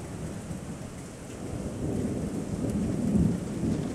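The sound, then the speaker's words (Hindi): Steady heavy rain hisses throughout while a deep roll of thunder swells in the middle and peaks near the end, loud, with no voices: a sharp crack of lightning with a sudden torrential downpour. “वो निकलने वाली ही थी कि तेज बिजली की कड़क के साथ अचानक से मूसलाधार बारिश होने लगी”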